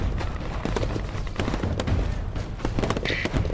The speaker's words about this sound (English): Gunshots came from all directions. Some of the Mallers and guardian spots were shooting at others in the crowd.